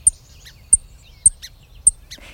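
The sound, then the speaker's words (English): A sparrow's alarm call: four sharp, high-pitched chirps repeating at a steady, fairly quick pace, clear over a faint low rumble. “Bird songs change when other animals are around, so the sparrow's song might sound something like this.”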